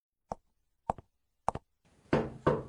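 Sharp knocks on a door, three spaced raps, some landing as quick double taps, followed by a louder, longer muffled noise at the end.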